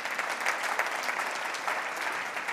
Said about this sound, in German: Ich denke, das verdient einen kräftigen Applaus für alle, die, die einfach keine, dem Herrn keine Ruhe lassen und für uns einstehen.